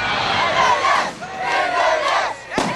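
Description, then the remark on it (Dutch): A large crowd of secondary school students shouts and chants loudly together in rising, surging waves at a 2007 demonstration against the 1040-hour school norm, a dense roar of many young voices, ending with a sharp burst near the close. “Het ging over de ophokplicht werd luidruchtig gedemonstreerd tegen de 1040-uren-norm.”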